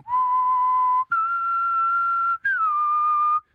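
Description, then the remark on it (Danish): A person whistles three long, steady notes in a row, each held about a second with brief gaps between, a clear tune imitating a flute line with no talking. “Prøv lige fløjt det stykke.”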